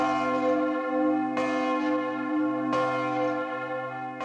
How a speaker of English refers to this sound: blended synthesis and sampling techniques to produce chimeric combinations of two primary sources a tenor bell at the Winchester Cathedral in England,